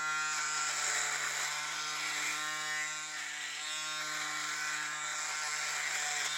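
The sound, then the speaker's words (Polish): An electric shaver, still slightly wet after washing, is switched on and runs steadily for several seconds, a continuous mid-pitched buzzing hum with a bright harmonic whine and only a slight dip in level partway through. No one speaks. “I teraz włączam ją. No i teraz ona sobie chodzi. I można się golić.”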